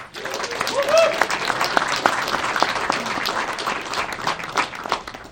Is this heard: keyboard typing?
no